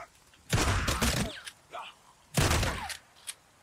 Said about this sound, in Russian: Можешь ноги выстрелить. Так я стрелял, пытался. Так, у меня 6 патронов осталось.